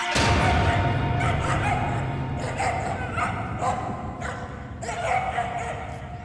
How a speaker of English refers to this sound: So there's a dog yeah. that tries to bite Tommy